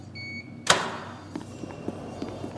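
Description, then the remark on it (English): A short electronic beep from a mark scanner, then a sharp mechanical clunk and rushing whoosh as a locked door in a basement hallway releases and slides open onto a guard station, followed by a few soft, faint thumps. No one speaks. “The door opens to a guard station and a set of three hallways.”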